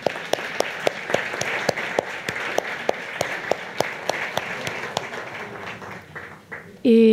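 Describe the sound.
A crowd applauds steadily for several seconds, with one nearby clapper's sharp claps standing out in an even rhythm; the applause fades out and a voice starts right at the end.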